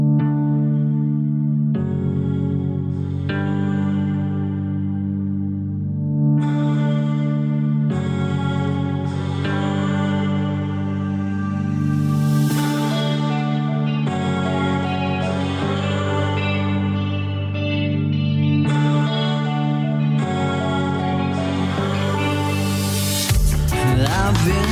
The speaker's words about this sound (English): Now on this song, it's their male, male vocalist.